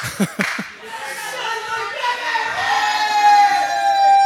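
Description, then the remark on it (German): A crowd cheers and claps in a sustained wash of noise, with a few sharper bursts near the start and a steady roar building throughout, as a woman in a wheelchair is accompanied up to the top of a tower. “Genau auf der anderen Seite des Turmes wird gerade eine Rollstuhlfahrerin nach oben begleitet und alle flippen vor Freude aus, inklusive sie.”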